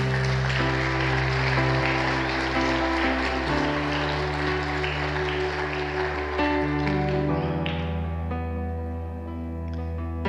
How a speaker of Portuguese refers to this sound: Aplauda Jesus por isso.